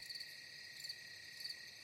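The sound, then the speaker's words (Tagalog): Crickets chirp at night in a dense, continuous high trill, with slightly brighter pulses recurring about every two-thirds of a second. The sound is faint, with no voices. “Nagpalingalinga ako pero tanging huni ng mga kuliglig at panggabing ibon lang ang naririnig ko.”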